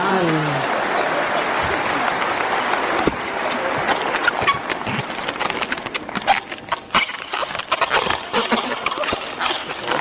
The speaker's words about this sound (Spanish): Un aplauso a la señora que no cuida nada.